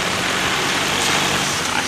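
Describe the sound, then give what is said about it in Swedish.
A steady, dense rumble of a traffic queue on a motorway made up entirely of Norwegian cars, with engines droning and idling. The noise holds at an even, fairly loud level throughout, with no voices. “Det är kö helt fram motorvägen och i kön är det enbart norska bilar.”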